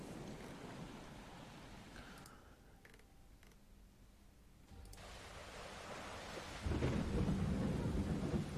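Steady rain hisses throughout while low thunder rumbles in the background, swelling into a louder, deeper roll toward the end. No voices are heard.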